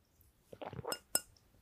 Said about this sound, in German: Zum Wohl, cheers. Mit dem crazy Glas Wasser.